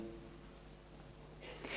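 A quiet, steady hum gives way to one sudden sneeze at the very end, a short, breathy, hissing burst that rises sharply in loudness.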